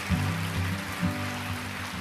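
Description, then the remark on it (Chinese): An audience breaks into warm applause for God, a dense, steady wash of clapping that holds for about two seconds, with low sustained instrumental tones humming underneath. “好，给我们奇妙的上帝一个热烈的掌声啊！”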